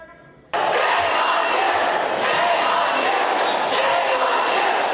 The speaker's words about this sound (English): A crowd of protesters booing and shouting from the balcony above as the Republicans voted to expel these two Democrats.